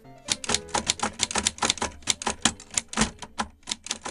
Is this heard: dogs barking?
no